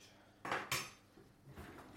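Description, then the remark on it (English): Cutlery and dishes clatter as ham is served at a dinner table, with two sharp metallic clinks close together followed by softer scraping and tapping of utensils against plates. “So I'm just serving up”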